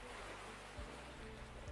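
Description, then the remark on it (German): A soft, continuous, steady wash of ocean waves, with a couple of faint low swells rolling through, heard from a seaside café beside golden sand. No voices. “Rundherum höre ich die Wellen und jenseits ist das Meer und goldener Sand.”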